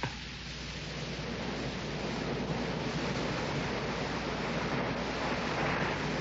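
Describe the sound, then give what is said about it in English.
Sea waves at Lowestoft wash steadily onto a shore, a constant hissing roar of surf that stays fairly even throughout, with no voices. “I decided that that day, after the falling of the picture, was a day to be spent by the sea.”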